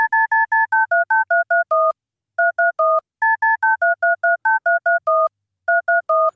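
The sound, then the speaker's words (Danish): Phone keypad tones from dialing a famous musician's phone number beep out the melody of the musician's biggest hit, a quick run of clean dual-tone presses grouped into phrases with short pauses between them, loud with no voices. “hvis du skal ringe til en kendt musiker, så er tastelydene fra deres telefonnummer melodien fra deres allerstørste hit.”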